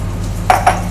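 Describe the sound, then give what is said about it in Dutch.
A spoon and fork are dropped into a colander holding potatoes, giving two quick metallic clinks with a bright ringing edge, the second following shortly after the first, over a low steady hum. “Ah, ik doe de lepel en vork even bij de, eh, bij de aardappels van mijn man in de vergiet, want eh, hij zal er geen last van krijgen.”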